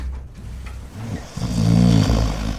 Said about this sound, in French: On a fait un petit montage de ronflage, de ronflette, de ronfle, de, de ronflouillis enregistré.